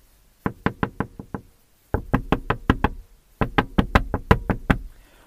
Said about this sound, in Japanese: 女はずっと車の窓を叩いてくる。逃げ出せないんです、どうやっても。